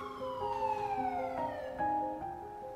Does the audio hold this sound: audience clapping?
no